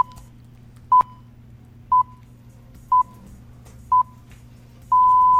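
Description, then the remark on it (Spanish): A radio time signal marking 10 in the morning: four short, evenly spaced high beeps one second apart, then a longer sustained beep of the same pitch marking the hour, over a low steady hum. “Ese sonido que está ahí, ese.”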